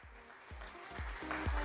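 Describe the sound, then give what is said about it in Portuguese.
A short burst of clapping, a dense crackling wash of applause for a guest being introduced, with steady low thumps pulsing underneath about twice a second, growing slightly louder toward the end. “Aplausos, aplausos pro Nerd Surdo.”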